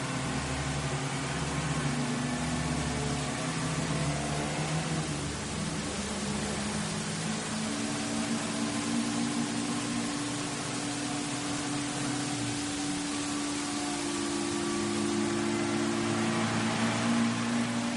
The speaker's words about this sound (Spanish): El Mejari atraviesa un túnel. Bajo una lluvia torrencial circula por una carretera. Uno de sus flancos es una verja con concertinas.